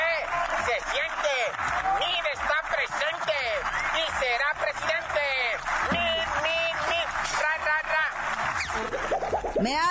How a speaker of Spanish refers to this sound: secretario de Hacienda, José Antonio Meade, acudió a San Lázaro a rendir cuentas y es ovacionado como si fuera ya el candidato oficial del PRI. Mire, escuche usted.